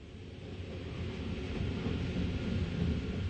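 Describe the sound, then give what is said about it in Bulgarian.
A train rumbles along at a steady pace as it arrives at Potsdam, the last station before Berlin: a dense low mechanical roar with a faint hiss on top, holding fairly constant and swelling slightly as it nears. No one speaks. “Тя наистина заспива и се събужда едва когато влакът пристига в Потсдам.”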